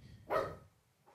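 A single sharp, loud bark from a poodle bursts out suddenly, then fades, followed by a faint trailing sound at the end. The dog is barking at people it hears outside.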